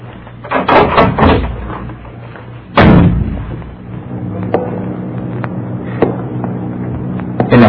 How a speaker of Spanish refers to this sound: Resueltamente se dirigió a la puerta de aquella casa, empujándola y penetrando familiarmente